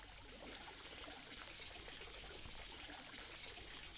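Water trickles and splashes steadily from a village fountain, a continuous bubbling rush with no pauses and no voices.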